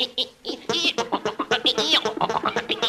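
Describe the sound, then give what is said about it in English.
A loud voice makes warbling, nasal tones in quick choppy bursts, a mock imitation of an electric organ that comes out more like squawking than sustained notes. “I do a wonderful imitation of an electric organ.”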